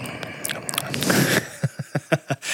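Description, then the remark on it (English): Wet licking mouth noises in a quiet studio: smacky, squishy clicks at first, then a steady run of about six moist smacks in a quick rhythm, loud. “Just my voice coming in and licking your eardrum.”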